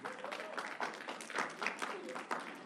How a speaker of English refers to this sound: Come on now, clap it up.